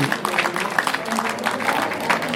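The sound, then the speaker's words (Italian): Audience applause for an honoree at the FAR's golden anniversary awards, a dense, steady patter of many hands clapping at once, moderately loud and continuous throughout, with no voices standing out above it. “un altro nome che richiede il vostro improvviso e naturale applauso.”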